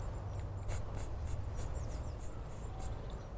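A firecrest gives a faint, very high-pitched series of about eight thin, evenly spaced squeaky notes, almost at the edge of hearing, over quiet outdoor background noise.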